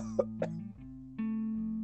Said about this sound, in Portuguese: É, eu tô tossindo aqui. Mó, mó sede.